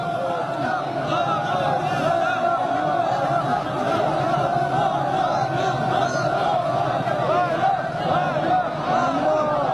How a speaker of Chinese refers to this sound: 到处都是热情的笑脸，友好的欢呼声不绝于耳。习近平和金正恩向欢迎的人群频频挥手致意。